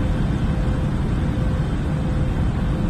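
A steady, unbroken engine drone with a deep rumbling low end and airy hiss above, like an airplane cabin heard from inside, constant in loudness throughout with no voices.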